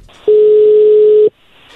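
A telephone ringback tone from an outgoing call: one loud, steady, mid-low electronic beep lasting about a second, then silence, with a faint hiss underneath.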